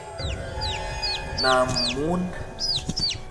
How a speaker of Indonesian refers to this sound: Aku pun menghentikan langkahku sejenak untuk memastikan kembali apa yang aku dengar itu, dan tiba-tiba, astaga, suara anak ayam itu terdengar lagi.